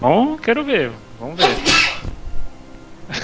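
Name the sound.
sneeze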